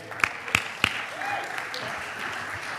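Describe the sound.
Scattered audience applause as a panel comes up to the front: three sharp, evenly spaced hand claps ring out, then fade into a soft, steady hubbub of murmuring voices and light crowd noise.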